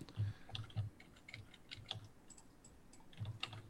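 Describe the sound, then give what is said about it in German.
Dice are rolled again on a player's turn in a game. They rattle and clatter in a quick, irregular burst of small hard clicks, fairly quiet, with no voices over them. “Also soll ich nochmal würfeln?”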